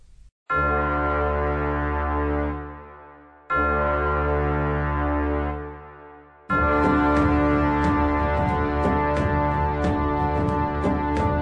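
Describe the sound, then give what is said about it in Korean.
A loud daily wake-up alarm clock blares in two long, droning blasts, then breaks into continuous rapid ringing that keeps going at full volume, harsh, with no voices. “매일 이렇게 요란한 알람 소리에 일어나 양치하고 씻고 깔끔하게 정장을 차려입고 출근 준비를 한다.”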